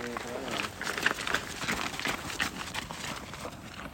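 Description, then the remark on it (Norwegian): Footsteps of a group of about 12 to 14 runners at a running club's group training on a Thursday evening in December, in fine winter weather around three to four degrees below zero, patter together in a dense, continuous rhythm, fairly loud for several seconds, with some voices murmuring among them. “ja, det dere hørte der, var ja, kan vi være 12-14 løpere fra Kristian løpeklubb det er torsdag kveld klokka sju.”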